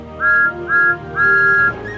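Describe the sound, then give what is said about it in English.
The whistle of Thomas the Tank Engine, a little blue steam engine, sounds three loud, clear blasts: two short toots followed by a longer held one, shrill and steady in pitch, with no talking. “He is the number one engine on the Fat Controller's railway and has a whistle that sounds like this.”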